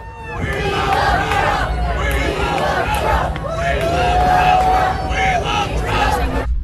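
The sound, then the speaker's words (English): A rowdy crowd of Trump fans at a political event shouts and jeers at once, a dense, loud wall of overlapping voices with raised yells and whoops cutting through, sustained for several seconds without letting up. “A bunch of Trump fans who are being extraordinarily rude, which again, not super shocking.”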